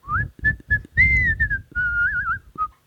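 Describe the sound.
A person whistles a quick, wavering little tune in short bursts and trills, fairly loud, imitating a dad who whistles and hums when he gets stressed, with breathy pauses between phrases.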